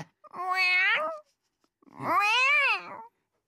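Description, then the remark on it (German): Two drawn-out, whiny meows with a pause between them, the second longer and rising then falling; fairly loud, sounding like a person imitating a cat. “und jetzt macht die Katze.”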